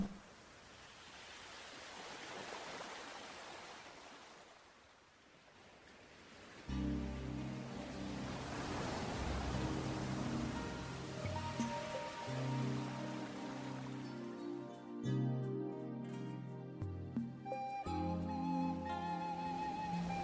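A steady wash of surf swells and recedes for several seconds, then warm sustained music enters and carries on over a faint watery hiss.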